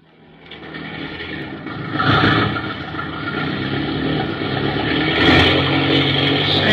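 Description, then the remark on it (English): An airplane engine roars at full throttle just after a smooth landing, with full left rudder applied, a loud, steady droning rumble that swells after a couple of seconds and keeps building, continuous with no voices. “what you're trying to do blasting that engine, and do you know you're applying full left rudder?”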